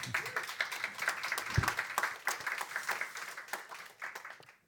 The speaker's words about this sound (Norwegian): Gi dem en varm applaus.